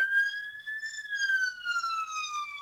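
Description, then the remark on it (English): A police siren wails steadily in the background, its pitch slowly rising then gently falling, moderately quiet, with no voices over it. “And we get a little siren in the background.”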